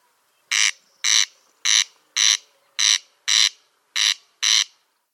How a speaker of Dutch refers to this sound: Ehm, ja, als je ook op zoek wil gaan naar de kwartelkoning volgend jaar, moet je natuurlijk weten hoe die klinkt. Nou, die klinkt dus zo.